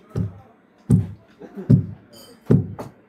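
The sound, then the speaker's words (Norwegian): Four heavy, booming thuds land at a slow, steady pace, heavy footsteps climbing stairs, each one loud with a short dull resonance and no talking. “Så hører jeg sånn tunge skritt opp trappa, sånn”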